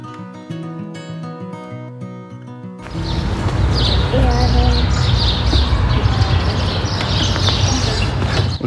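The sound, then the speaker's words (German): A few seconds of music give way to an outdoor scene at the railway station forecourt in Bad Nauheim, where many birds chirp and twitter busily, repeated bright calls over a steady wash of background noise. “bei diesem wunderschönen Vogelgezwitscher sind wir jetzt wieder am Bahnhofsvorplatz in Bad Nauheim.”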